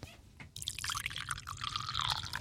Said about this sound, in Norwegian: Nå skal jeg helle oppi varm, eller lunge, den er ikke helt varm da, men litt lunka kaffe oppi en kopp. Skal du høre den lyden?